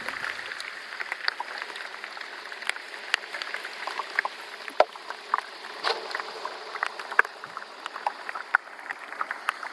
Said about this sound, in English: I think this was the first iceberg that I used the hydrophone, and again that was producing a lot of really loud pops and, and fizzes